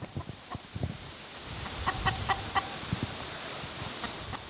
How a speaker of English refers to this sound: Now, these ladies, um, they're two legged and they have uh, these red combs. They're chickens. They're coming towards us.